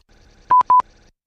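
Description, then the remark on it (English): An electronic doorbell rings, two quick pairs of bright, evenly pitched beeps that stand out loudly against a faint background hum, with no one talking. “Somebody ring the doorbell.”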